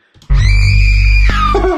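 A loud, sustained scream sound effect rises abruptly and holds steady for about a second, then drops in pitch and trails off, heavily processed and distorted.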